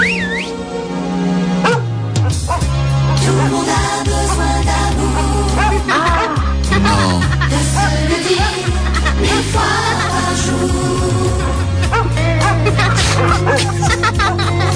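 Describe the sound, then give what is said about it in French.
A loud, busy radio jingle: dense music with a steady bass line runs throughout, mixed with dog barks, yips and whimpers and a child's voice, filling the whole stretch without pause. “il y a en revanche des chiens qui, sont passés dans des jingles. Le nom de ce jingle s'appelle Chien et enfant.”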